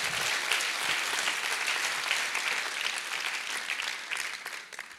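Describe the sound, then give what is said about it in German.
A church audience applauds to welcome a speaker: dense, steady clapping from many hands fills the whole stretch at a fairly even level, thinning slightly toward the end, with no one speaking over it. “Lasst uns ihn mit dem Applaus begrüßen.”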